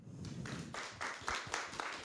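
Steady applause from an audience, a dense wash of overlapping claps with a few sharper individual claps standing out in a loose rhythm, moderately loud throughout.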